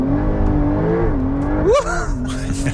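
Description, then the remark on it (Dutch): The engine of a four-wheel-drive Porsche 911 Turbo S sports car accelerates while being driven, with a loud, steady drone whose pitch slowly rises, then briefly surges and drops as if shifting gear, before settling back into a strong hum. “Eh, we gaan eh, zelf rijden met de Porsche 911 Turbo S.”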